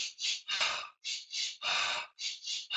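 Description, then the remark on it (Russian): Breathy respiration in a steady cycle during a breathing exercise: two quick sniffing inhales followed by one longer, fuller exhale, repeated about three times with no talking. “Попробуйте сделать два раза вдох, один а раз выдох. Вот так.”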